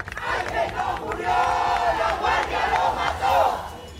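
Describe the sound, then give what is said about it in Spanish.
Thousands of students and academic and administrative staff of the University of Guanajuato march to the esplanade of the Lóndiga de Granaditas, chanting in unison "Ángel no murió. La guardia lo mató" to demand justice for a student's murder. Loud voices rise and fall in rhythmic, repeated phrases over a steady roar of crowd noise. “Miles de alumnos, personal académico y administrativo de la Universidad de Guanajuato marcharon hasta la explanada de la Lóndiga de Granaditas para exigir justicia por el asesinato del estudiante”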